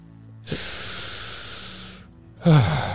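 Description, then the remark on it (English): A voice imitates Darth Vader's heavy mechanical respirator breathing: a long, loud hissing inhale followed by a shorter, raspy exhale with a low rumble, with no talking. “Honestly, I, I mean, look, I, I, I saw you know Darth Vader in front of me, and his breathing just.”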